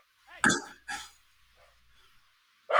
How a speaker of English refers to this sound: Get, get, Get control of your dogs. There must be a creature in the backyard. Shut up!